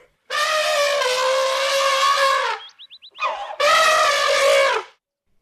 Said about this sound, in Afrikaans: Olifant trompet hard en stamp een van sy yslike voorpote op die grond.